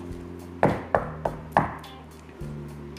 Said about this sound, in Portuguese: Enquanto isso, o lobo foi pelo caminho mais curto até a casa da avó. Quando chegou, bateu na porta.